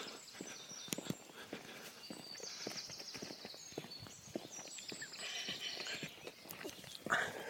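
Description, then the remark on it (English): Quick, irregular tapping of a small jug dog's paws, a cross between a pug and a Jack Russell, padding past on a hard surface, continuing for several seconds with faint outdoor chirping in the background. “It's a little dog padded past me called a jug.”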